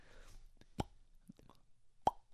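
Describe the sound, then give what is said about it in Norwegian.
Two hollow pops from an old-fashioned swing-top stopper on a small glass bottle snapping open, about a second apart, each short and crisp, with faint clicks and handling noise between them and no talking. “Så, sånn her, så kjøpte jeg sånne her sånne små sånne, eh, eh, glassflasker da, med sånne her eh, gammeldags sånn flas, sånn saft ja, Ja, Sånn ja. kork.”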